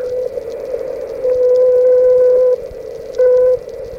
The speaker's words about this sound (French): Il reste une minute de vol, dit Koutiakov. Voilà qu'il envoie son dernier signal à la Terre.